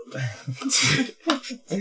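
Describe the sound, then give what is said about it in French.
A few harsh coughs in quick succession, the first one longest and loudest, mixed with throaty voiced sounds between the bursts. “Vas-y, What Up le nouveau jingle, je tousse.”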